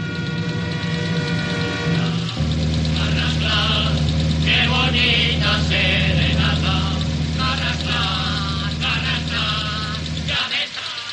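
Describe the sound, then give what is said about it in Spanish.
A steady, low engine hum runs throughout as a chauffeur-driven car drives along and passes a truck carrying soldiers, with a droning mid-range rumble and bursts of brighter, rattling mechanical noise above it. “Luego va en coche y se cruza con un camión de soldados.”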